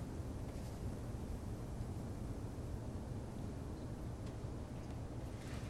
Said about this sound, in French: Alors en français, ça donne une énorme boule de béton qui tombe dans un puits de métal entouré d'eau de mer. C'est ce qu'elle décrit en espagnol.